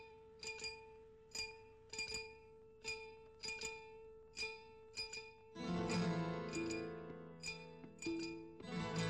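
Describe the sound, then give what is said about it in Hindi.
A spoon taps a glass in a steady rhythm, playing the opening tune of a song, each clink ringing with a bright, bell-like tone to form a short melody, before fuller instrumental music swells in and the clinking continues over it. “तो शायद आप जानते होंगे कि उस गाने की जो शुरू की ट्यून है उसे एक कांच के ग्लास और चम्मच से बजाया गया था”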